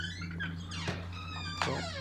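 A squeaky door creaks twice, two shrill, wavering hinge squeals about a second apart, the second a bit sharper and louder, over a steady low hum with no talking.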